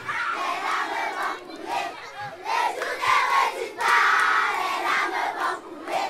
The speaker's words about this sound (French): C'était la chambre, la maison de Yannick Noah. Aujourd'hui, c'est une école. On a été accueillis extrêmement chaleureusement par les enfants qui ont d'ailleurs euh, chanté une chanson euh, pour nous pendant ce reportage.